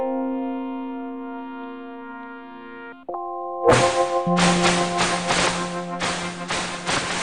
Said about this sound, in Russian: вот эти вот звуки, это дельфины выпрыгивают из воды якобы.